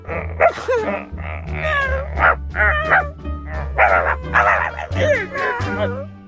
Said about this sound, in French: faire des cris d'animaux en se cachant derrière les rideaux.